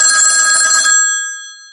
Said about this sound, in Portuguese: Mas aí o telefone. Não, tocou.